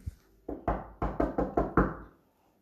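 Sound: knocking on a door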